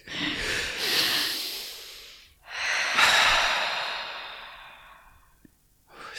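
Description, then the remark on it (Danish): A group takes a slow, deep inhale followed by a long, airy exhale, then another full breath in and a drawn-out sigh out, clear with no talking. “Kan vi lige tage en dyb”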